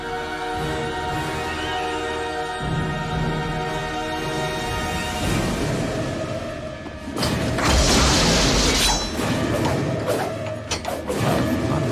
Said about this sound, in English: Blade whooshes there, Patrick.